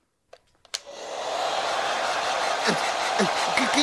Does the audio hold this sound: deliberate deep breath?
no